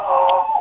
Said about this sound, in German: Was ist das denn? Das war mein Hund. Was hat der denn für ein Problem, Ihr Hund? Ja, ich weiß nicht.